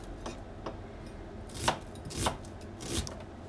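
Several sharp knife chops strike a cutting board at an irregular pace while vegetables are prepared for dinner, with three louder, crisp cuts standing out over quieter taps. Fairly soft overall, with no one talking.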